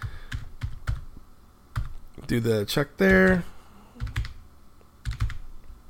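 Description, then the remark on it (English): Quick, uneven keyboard clicks tap out a short burst of typing into an online form asking for mother's maiden name, which then forwards to the TSB website, with brief pauses between keystrokes, while a person speaks over the top for a couple of seconds in the middle. “And then it wants mother's maiden name, so let's do mummy and we'll hit next.”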